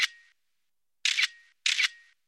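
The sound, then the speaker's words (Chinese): Three phone camera shutter clicks as a dim corridor and building entrance are photographed with a phone, each a crisp, bright snap with a short ringing tail; the first comes alone, then two more follow close together after a pause, with no voices. “美颜开始用手机拍这昏暗的走廊和入口。”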